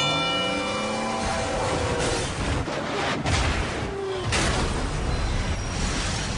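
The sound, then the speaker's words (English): A heavy million-pound freight train at a crossing roars loudly, its horn blaring with sliding tones at the start over a constant rumbling din, followed by a sharp heavy burst partway through. The train takes a mile to stop. “And on the tracks, we have Bull, a million-pound freight train that takes a mile to stop.”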